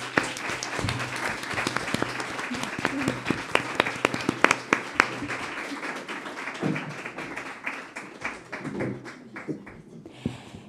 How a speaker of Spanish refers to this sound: Así que vos a despedir para estar un ratiño con ella, así que vos pido a público un fuerte aplauso porque fue una gozada entrevista.